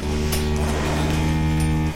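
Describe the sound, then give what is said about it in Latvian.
A cow of the old Latvian Brown breed, on the small Grunduļi farm in Latvia, lets out one long, loud moo, a low, steady, buzzy tone held for the whole two seconds without a break, with no voices over it. “nelielā saimniecība Grunduļi ir viena no tikai dažām, kas vēl tur senākās Latvijas brūnās šķirnes govis.”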